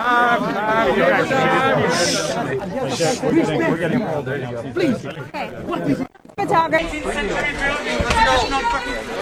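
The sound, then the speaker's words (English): Reporters' overlapping voices talk and call out at once in a tight, agitated jumble as Russian security people shove them out of the room, with a brief break before the loud commotion resumes. “the Russian security people got a little uptight and asked and shoved, basically shoved them out of the room”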